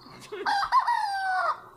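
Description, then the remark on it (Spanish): A single rooster crows once, a loud cock-a-doodle-doo with a rising start and a long, sustained falling tail, heard alone without talking. “Pon algunos gritos de gallo, diferentes tipos de gallo, eh, eh, por favor, para, para ver la diferencia entre gallo y gallo.”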